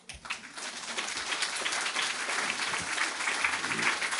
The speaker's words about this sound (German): Applaus